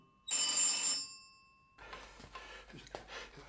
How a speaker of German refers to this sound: Das Telefon klingelt.